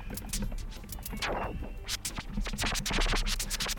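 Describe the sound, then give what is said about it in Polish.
A DJ demonstrates scratching on a turntable: a rapid series of sharp back-and-forth record scratches with rising and falling swoops, loud and rhythmic over a low bass groove, no talking. “Generalnie Scratch, ten dźwięk, ten”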